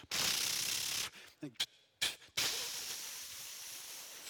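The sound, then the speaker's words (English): A voice imitates a ratcheting garden sprinkler: loud, hissing spray sounds broken by a few short clicking bursts in the middle, then a long steady hiss that slowly fades. “They spray the garden in one direction. It's like you kick it and it goes,”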